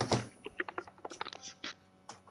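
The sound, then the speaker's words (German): A rapid, irregular patter of computer keyboard keys clicking as someone plays a video game on mouse and keyboard, with quick sharp taps bunched together and a few brief pauses. The sound is fairly quiet, with no one talking. “Ich mach mal kurz eine Runde auf Maus und Tastatur, damit ich auch die ersten Edits mal äh, funktionieren, weil irgendwie mein.”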